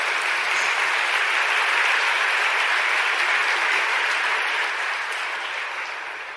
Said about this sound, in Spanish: ¿Cuántos confían en Dios hasta el final? Démosle ese aplauso fuerte al Señor.